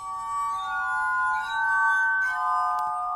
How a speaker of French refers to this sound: L'harmonica de verre, qui fait une musique un peu mm. angélique.